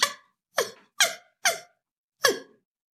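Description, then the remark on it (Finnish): A primate researcher imitates chimpanzee food calls: five short, high-pitched squeaky hoots with falling pitch, four in quick succession and one after a brief pause, with no other talk. “demonstroi, miten eläinkunnan lähimmät sukulaisemme simpanssit viestivät.”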